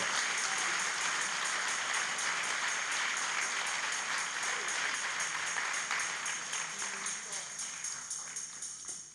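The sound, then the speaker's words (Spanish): An audience applauds for the Lord, a dense, steady wash of many hands clapping that holds strong for several seconds before gradually thinning and fading toward the end. “No, ah, démosle un aplauso así.”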